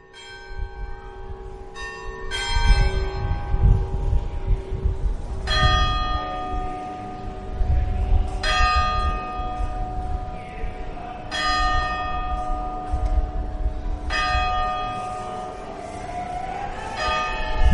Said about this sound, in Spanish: a través de una grabación fiel de las campanas de San Miguel registró los sonidos del campanario que está colocado en una de las torres de la parroquia de San Miguel y del reloj que está junto.